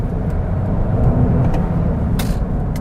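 A Toyota hybrid car's three-cylinder engine hums steadily while driving, a low, muffled drone with road rumble heard from inside the cabin and a few brief higher ticks over it.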